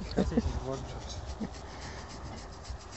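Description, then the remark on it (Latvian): A goat being scratched by hand: steady rubbing and scratching on coarse hair, a continuous rasping texture with a few brief voiced sounds near the start. “Kāzu kasāža.”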